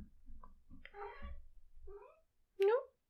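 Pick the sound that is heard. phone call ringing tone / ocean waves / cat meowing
cat meowing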